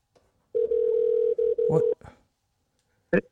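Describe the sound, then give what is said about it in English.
A steady electronic ringing tone of an outgoing phone call hums for over a second with a couple of tiny breaks, then cuts off with a click as the call is picked up, followed by silence and a brief clunk. “Let's see if he answers or not. He's taking his merry sweet time, isn't he? Picking up the phone.”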